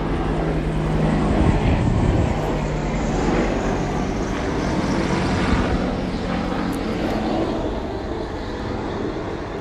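A low-flying airplane roars loudly overhead, a dense, sustained engine rumble that fills the whole stretch without letting up, steady rather than fading away.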